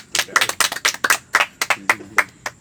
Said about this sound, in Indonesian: Tepuk tangan dulu.